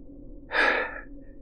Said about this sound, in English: Thanks, Don. He panted, one arm draped over his eyes. You saved me.